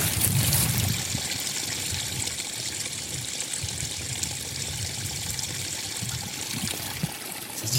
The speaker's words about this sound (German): der Bach